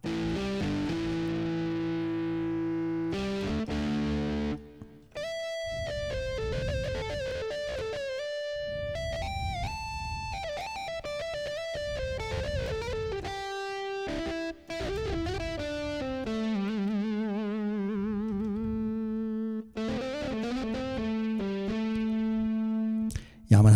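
A keyboard patch imitating a distorted rock guitar, with the keyboard's volume turned down a little, plays a series of sustained, gritty notes and held chords, shifting pitch every few seconds, loud and continuous with no talking.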